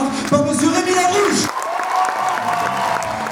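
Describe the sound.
A theatre audience in Aquitaine bursts into sustained applause mixed with cheers and whoops for two teams, beginning with the BIP. The clapping is dense, with raised voices calling out over it throughout.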